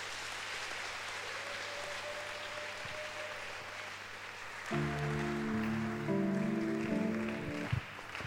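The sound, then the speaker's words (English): An audience claps hands for the Lord in a dense, steady wash of applause; about halfway through, sustained keyboard chords come in and play over the continuing clapping. “don't you clap your hands properly for the Lord?”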